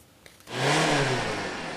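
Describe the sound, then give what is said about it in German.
A car engine roars to life after a brief quiet moment, revving loudly with a rising, then steady growl that stays strong until the end. “Das Auto, der Deutschen liebstes Kind.”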